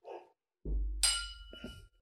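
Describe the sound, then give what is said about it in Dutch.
Glasses clink together once in a toast, a bright chime that rings on briefly, just after a dull low knock and a soft rustle. “En uh, proost.”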